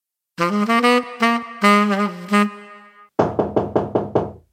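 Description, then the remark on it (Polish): A short melodic tone sequence plays, then six quick, evenly spaced knocks on a door ring out loud, with no talking. “Puk, puk. Mam nadzieję, że ktoś jest jeszcze po drugiej stronie.”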